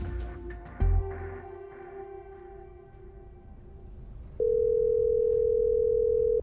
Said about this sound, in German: Mai 1931, New York. Charles Guth sitzt in seinem Büro am Telefon. Er wartet, dass sein Anruf entgegengenommen wird.